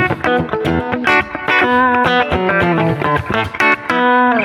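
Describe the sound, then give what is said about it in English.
Electric guitar on a Fender Electric Fat Semi Clean setting for lead tones, with a semi-clean, lightly driven tone, plays a quick melodic phrase of plucked notes and chords, fairly loud, with no talking over it. “This is Fender Electric Fat Semi Clean. So this is where you're going to get your lead tones really exactly.”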